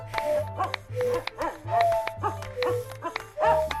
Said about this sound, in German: Was macht denn der Hund hier? Ist dem langweilig? Der soll auch mitmachen.